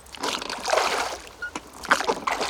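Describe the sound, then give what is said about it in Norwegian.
Water sloshes and splashes as a small boat moves across a deep lake, with irregular lapping and dripping sounds rising and falling in bursts. “Reporter Stian er ute på vatnet i båt.”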